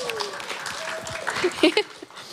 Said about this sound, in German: Das ist ganz schön krass und ihr seid damit auch das, die größte, beziehungsweise das größte Community-Radio im deutschsprachigen Raum. Da kann man kurz mal klatschen.